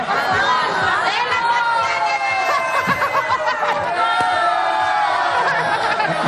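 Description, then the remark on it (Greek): An audience shouts and screams loudly and continuously to win a pillow, whoever shouts most getting it, many high voices overlapping in a dense, sustained roar with bursts of laughter mixed in. “Όποιο φωνάζει περισσότερο θα πάρει το μαξιλάρι.”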